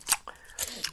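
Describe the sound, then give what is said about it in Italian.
Crisp, crackly crunches of someone biting into salty snack chips: a few sharp bursts spaced irregularly over under a second, fairly loud, with softer chewing between them. “Ora il problema è che continuerei a mangiarle per tutto l'episodio, ma abbiamo cose di cui parlare.”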